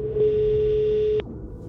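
A single steady electronic ringback tone from an outgoing phone call to a future boss who trains officers in the armed forces, sounds for about a second, then cuts off sharply, leaving a faint hum of line noise behind.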